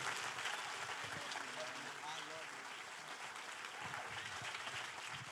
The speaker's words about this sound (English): Before you sit down, take about 30 seconds and lose your mind for your pastors. Come on, clap your hands.